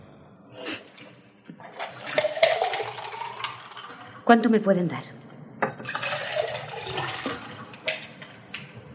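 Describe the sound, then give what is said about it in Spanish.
Liquid is poured for lemonade in two long splashing streams, the pitch rising as the container fills, with clinks in between and a woman's voice speaking briefly on the phone over it as she makes the lemonade. “Prepara limonada mientras habla.”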